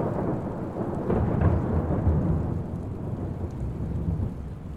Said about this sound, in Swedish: Och denna natt blåser det upp till en kraftig storm.